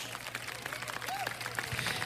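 A group applauding for a radio programme's sponsor, RMP (Radiadores y Mofles del Puerto), with dense, steady clapping throughout the two seconds over a low, constant hum; a short whistle-like tone rises and falls midway.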